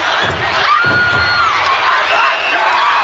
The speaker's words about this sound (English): This is not supposed to happen. Randy Savage. God damn. His equilibrium. Off as Elizabeth shrieks in horror.